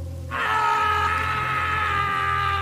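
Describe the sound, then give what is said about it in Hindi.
A person who has been knocked to the ground screams in one loud, sustained cry that breaks out abruptly behind passers-by on a path beside a building and holds steadily for over two seconds, over a low steady hum. “हम लोग उस इमारत के साथ वाले रास्ते से गुजरने लगे सब अपनी मस्ती में चल रहे थे और इतने में पीछे से आती है चिल्लाने की आवाज़”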